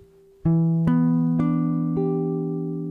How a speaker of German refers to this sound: So, und der Moll 7 B5 Akkord hat eben diesen wichtigen Ton, von dem wir gerade gesprochen haben, drin.